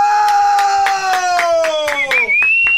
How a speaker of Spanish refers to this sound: Denle un aplauso a este buen hombre.